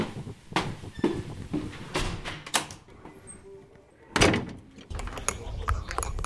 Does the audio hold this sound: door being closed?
yes